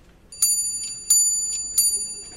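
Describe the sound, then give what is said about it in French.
A pendulum clock strikes three o'clock in the afternoon with three evenly spaced, resonant metallic chimes, each ringing on and overlapping the next, clear, with no voices. “Ah, il est 15h. L'équipe m'a entendu sonner.”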